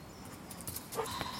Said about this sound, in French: Mais il y a un chien qui me regarde. Pas méchamment.